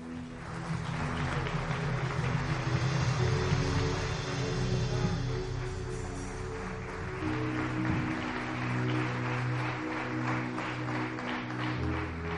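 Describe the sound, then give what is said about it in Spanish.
A church audience applauds the Lord steadily for the whole stretch, a dense, even wash of clapping with sustained musical tones from instruments playing underneath. No one speaks over it. “Dale un aplauso al Señor bien fuerte.”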